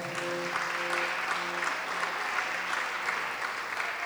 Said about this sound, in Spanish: ¿Cuántos pueden darle un aplauso al Señor en esta tarde?